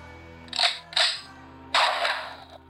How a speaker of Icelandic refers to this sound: svo er bissu skot hérna